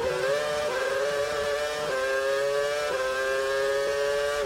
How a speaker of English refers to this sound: Do you hear that wheel spin? When the car goes, whoa, it goes up in revs. Hang on, let me go back there. So guys, hear the wheel spin, right? When the car goes... Wheel spin, wheel spin.